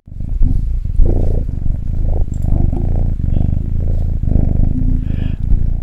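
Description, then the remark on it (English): A male kitten purrs steadily and continuously for several seconds, low and throbbing with a rhythmic pulse and faint rustling noises around it. “Lauren has found a kitten.”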